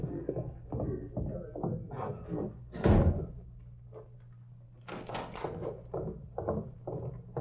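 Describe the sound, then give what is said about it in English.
A wooden door is shut with a single loud thud, surrounded by muffled voices and shuffling movement before and after. “Now, shut the door.”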